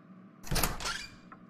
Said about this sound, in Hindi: अचानक केबिन का दरवाजा खुलता है